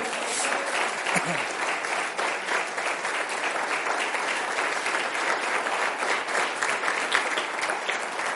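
Sustained audience applause, a dense steady wash of many hands clapping for several seconds at an even, fairly loud level, with no one speaking over it.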